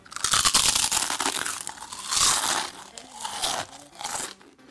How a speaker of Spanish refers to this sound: Allí se les entregó un par de auriculares y los instruyeron para morder, una por una, casi 200 chips de Pringles, sabor original, por si alguien quiere repetir el experimento.